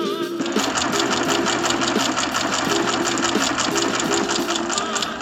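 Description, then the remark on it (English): A ticker tape machine sound clatters in a fast, steady mechanical rhythm, loud, with a music track playing underneath throughout. “But for those of you wondering, that's a ticker tape sound matched up with a cool sounding track”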